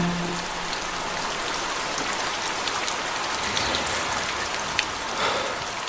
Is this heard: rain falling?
yes